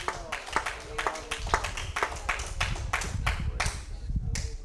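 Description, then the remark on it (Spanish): An audience applauds to the glory of God in the morning, a steady stream of sharp, overlapping hand claps lasting several seconds, with a low murmur of voices running underneath. “Alguien dele un aplauso a la gloria de Dios en esta mañana.”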